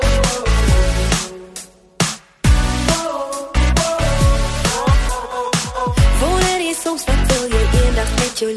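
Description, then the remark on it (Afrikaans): A bouncy children's song plays from a CD, bright melody over a steady thumping beat, fairly loud, with a brief drop-out near the start before the music carries on. “Ons het ook 'n heerlike liedjie waarmee ons later kan saam dans.”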